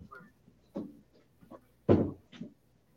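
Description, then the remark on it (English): A person pushes their door shut with one solid thud, preceded by a few softer knocks and clicks as it's handled, followed by a lighter bump. No one speaks. “Let me close my door real quick.”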